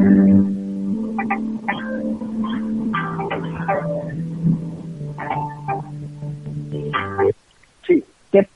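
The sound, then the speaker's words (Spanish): A steady, droning electrical hum of white noise runs loudly under a caller's voice on a live radio phone line, then cuts out abruptly near the end, leaving a few brief sounds in near silence. “el ruido blanco, lo volví a escuchar ahora, quiero que por favor ahora o lo corrijan o vean lo que pasa.”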